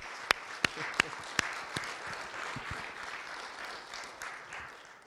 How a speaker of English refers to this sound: We're going to clap for God here.